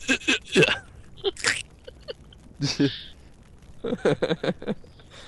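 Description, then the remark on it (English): Someone vocally imitates Solid Snake snapping a neck from behind, making a string of sharp, crunchy clicks and breathy bursts in two quick clusters separated by a brief pause. “breaking a neck.”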